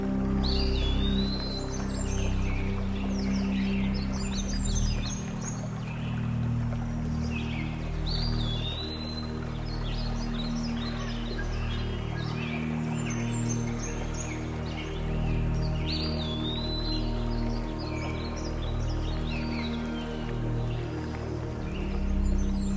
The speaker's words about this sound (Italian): Il suono degli uccelli, dell'aria, il fluire dell'acqua.